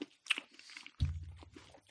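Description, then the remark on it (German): Crunchy chewing of a frozen cake, with crisp bites followed by a low, muffled mouth sound as the chewing continues. “man wird ja noch, noch schmatzen dürfen.”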